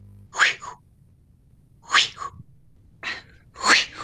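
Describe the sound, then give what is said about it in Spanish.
A voice imitates the swish of a fly-fishing line being cast by someone fishing at a lake: three breathy, hissing whooshes at a steady pace, with near-silence between them. “Bueno, yo este, este verano en el sur me quedé dormido a la orilla de un lago y eh, de pronto me desperté porque escuchaba un sonido que era.”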